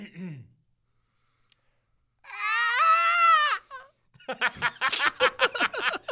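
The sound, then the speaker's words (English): In a best-dinosaur-roar contest, a person mimics a pterodactyl roar with one long, high-pitched, strained, choking screech that wavers for about a second, followed by a run of choppy laughter. “That was a choking pterodactyl.”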